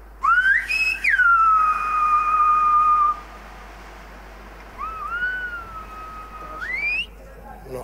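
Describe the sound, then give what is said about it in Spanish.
Loud, piercing whistled phrases with sliding rising and falling pitches, two long whistled utterances separated by a pause: Silbo, the whistled language of the Canary Islands, used to communicate over long distances. “El silbo es un medio de comunicación a distancias largas.”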